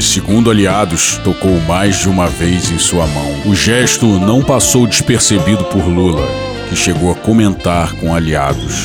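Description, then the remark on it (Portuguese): A small bird sings in the background, its thin, high chirps and trills running steadily beneath a man's continuous speech. “Olha o passarinho cantando, que coisa bonita.”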